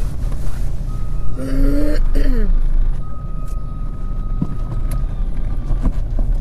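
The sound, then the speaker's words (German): A car engine rumbles, interrupted by a brief harsh grinding whine as the gearbox fails to catch first gear because the car is going too fast, then the steady engine drone continues. “Krieg gar keinen Gang rein.”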